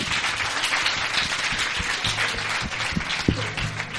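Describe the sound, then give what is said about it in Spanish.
Steady audience applause fills the space, dense overlapping claps from a crowd sustained throughout at moderate loudness, with no voices standing out, as a woman's boyfriend is called forward. “Un aplauso, por favor.”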